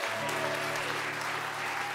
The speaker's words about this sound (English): Yeah, give him some applause.